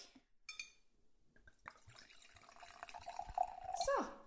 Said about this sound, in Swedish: Åh oh, gud, vilket härligt ljud. Men alltså det är bara härligt för att man vet att det är vin som förs ner i glas.